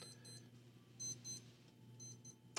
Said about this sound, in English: My watch is beeping. Who knows why? Maybe it's a signal that we've reached the end of this news segment. uh, Did you plan that in case our segment ran long? You just set an alarm?